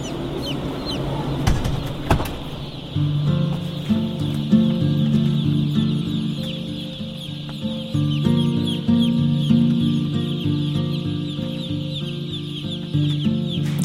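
A dense, continuous chorus of peeping chicks and clucking fowl fills an industrial poultry house holding 24,000 chicks, steady and loud throughout, with a brief knock near the start and no talking.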